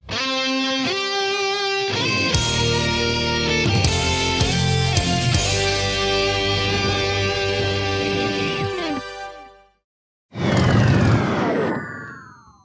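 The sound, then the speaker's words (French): A roaring, revving DeLorean engine builds into a swirling, distorted sci-fi whoosh as the car time-travels to 1923, cuts to a brief silence, then a second burst of descending electronic swooshes finishes the effect. “Allez, monte dans la DeLorean on file en 1923.”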